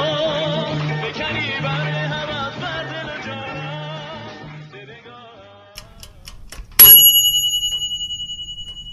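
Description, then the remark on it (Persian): A gas stove timer bell rings once with a sharp, bright metallic strike near the end, signalling that beef shank cooking in a pressure cooker is almost ready; its tone rings on and fades slowly, after quiet ticking and soft background music. “بله صدای زنگ گاز میاد صدای زنگ گاز میاد ماهیچه آماده است تقریبا در زودپز رو باز میکنم”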